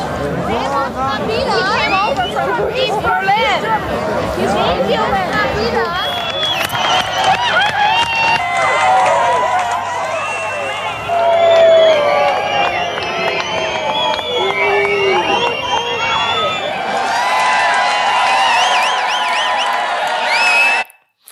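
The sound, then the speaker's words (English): A large crowd celebrates loudly and steadily at the Berlin Wall as East Berliners come over, a dense mix of overlapping voices, shouts and whoops with scattered cheers rising above the babble for the whole stretch. “And now they're coming, and the people who were in freedom are celebrating with them. Watch this.”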